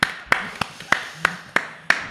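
A short burst of applause: about seven crisp, evenly spaced hand claps in a steady rhythm, fairly loud and sharp, with no voices over them.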